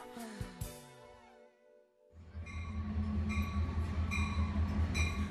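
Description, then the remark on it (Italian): A train heading toward Asailandia rumbles along the rails, first with high screeching tones and sharp clunks, then a steady loud roar of wheels with rhythmic metallic clatter and tonal whine, continuous. “Riprendo il treno in direzione di Asailandia”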